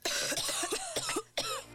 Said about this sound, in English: Do you constantly find yourself sounding like you are coughing up a lung?